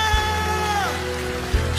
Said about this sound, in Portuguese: Você pode aplaudir o Senhor por essas vidas aqui. Pode aplaudir forte mesmo.